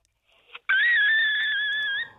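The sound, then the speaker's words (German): A child's very high-pitched vocal trill, held steadily for over a second after a brief soft breathy lead-in, loud and shrill with a slight warble, no talking over it. “Ich kann die hohen Töne hören und auch trillern.”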